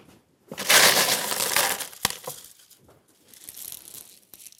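A dense, gritty rush of small expanded clay pellets pours into a glass jar, adding the last third of the layer around arranged plants. It is loud at first, then thins into scattered rattles and a few sharp clinks against the glass. No one speaks.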